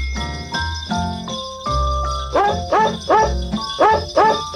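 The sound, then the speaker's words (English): Dog barks pitched to the melody of Jingle Bells, first as held notes and then as a quick rhythmic run of barks, over a steady musical backing with a high bell-like tone. “What's better than dogs wow. singing jingle bells?”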